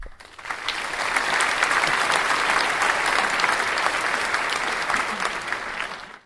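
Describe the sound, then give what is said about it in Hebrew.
A large audience at a big evening show claps steadily as Cantinflas is thrown onto the stage under the lights, a dense wash of many hands that swells quickly, holds at full strength for several seconds, then begins to fade at the end. “מחיאות הכפיים שכחו, הקהל ישב בשקט, מחכה למוצא פיו של העלם שעומד מולם תחת אור הזרקורים.”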